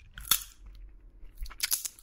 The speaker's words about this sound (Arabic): ممكن يكون في نوع من التأمل بتكرار الأفعال الصغيرة في فصفصة البزر شق القشرة بالأسنان واستغراج اللب منها وبعدين مد الإيد على الصحن من جديد وعينك لسه في عين اللي بتدردش معه